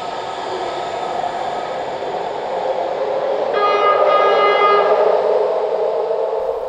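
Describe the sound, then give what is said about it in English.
A BART commuter rail train in the San Francisco Bay Area runs with a steady, loud rumbling roar, and a brief high-pitched metallic squeal rises midway before fading back into the constant motion noise. “The BART trains that crisscross the San Francisco Bay don't start running until 4 a.m.”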